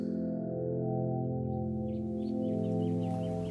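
Light, scattered morning birdsong chirps flutter in after a moment, faint and repeated, sitting over a steady, droning musical tone that dominates the sound.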